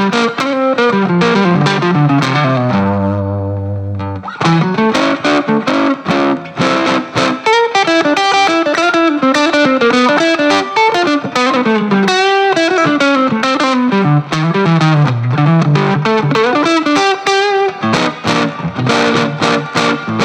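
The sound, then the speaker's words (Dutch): A distorted electric guitar with reverb plays a continuous, loud bluesy riff for about twenty seconds, with bent notes and a brief sustained low note near the start. No one speaks. “Beetje galm is wel lekker, hè?”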